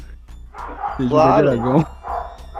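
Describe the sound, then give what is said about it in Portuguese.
A dog barks and yelps, a loud drawn-out burst in the middle with shorter barks around it, while a man keeps talking over the noise. “Desculpa o cachorro, gente.”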